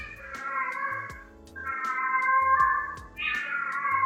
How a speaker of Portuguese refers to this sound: Parou? Tá, vamos esperar a gata parar. Pera aí.